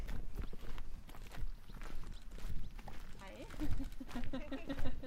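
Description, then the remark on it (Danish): A 15-year-old gelding, slightly lame, walks with its hooves clopping at a steady pace across hard farmyard ground at a horse farm, with a person talking partway through. “Det er en 15-årig vallak, du skal titte på, som ja. er lidt halt.”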